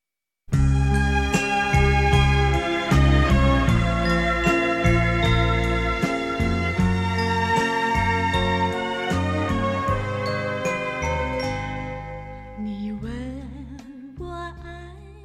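A slow Mandarin love ballad plays: bright, chiming keyboard notes over warm bass chords at a steady, gentle pulse, holding a fairly loud level before thinning and softening toward the end.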